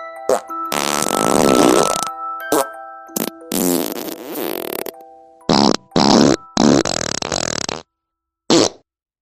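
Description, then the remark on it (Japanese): A voice imitates a fart in a series of bursts: a long wet sputtering blast, then several shorter raspy ones with gaps between, ending in a brief final squeak. No talking. “汚い音をできる限りリアルに再現していくので、お食事中の方は気をつけてね。”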